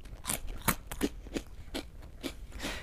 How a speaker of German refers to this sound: weißt du, was mir gerade auffällt, dass du gerade so hektisch deinen Cracker kaust und es alle hören können?